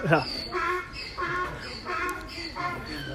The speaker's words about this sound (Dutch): Ik denk dat het ezels zijn trouwens, zo te horen. Die zitten hier ook.